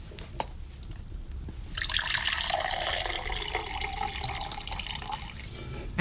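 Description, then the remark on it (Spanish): Water pours steadily into a glass for several seconds as a boy serves his grandfather more water, a splashing stream that starts abruptly after a brief quiet moment and fills with a faintly rising tone. No one speaks. “Connor, sírveme un poco más de agua, por favor, hijo.”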